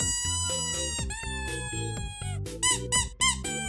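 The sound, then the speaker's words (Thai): A rubber toy doll called Eet cries out as its belly is squeezed, in a string of loud, high, wavering squeals, rising and falling in pitch, with a few sharper bursts at the end; no one speaks over it. “อีทอีทมีเสียงร้องดังขึ้นมาอีกครั้งช่างน่ามหัศจรรย์อะไรแบบนี้ใช่รอน้องอีทร้องได้แล้ว”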